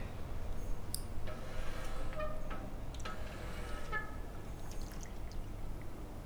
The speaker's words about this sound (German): Ja, ja, das ist eine Wasserröhre, da ist Wasser drin und, weiß nicht, Sand? Genau, Sand, äh, Sediment eigentlich und das gerät dabei ins Rutschen und ähm, wird dabei relativ schnell.